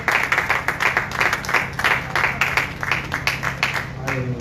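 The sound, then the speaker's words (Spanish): An audience applauds the Lord steadily for several seconds, many hands clapping in a dense, lively patter that fills the room, with a faint low hum underneath. “Denle fuerte aplauso al Señor.”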